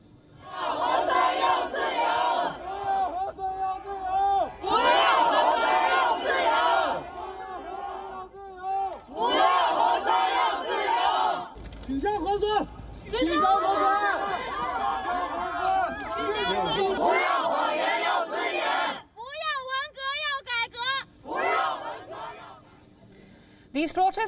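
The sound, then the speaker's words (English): A large crowd of protesters in Beijing shouts slogans against zero-COVID measures, such as "No PCR test, we want freedom," in loud, rhythmic bursts, voices rising together in chant after chant, with brief lulls of crowd murmur and a few higher-pitched cries between them. “Over the weekend, many of the protesters were heard shouting, No PCR test, we want freedom.”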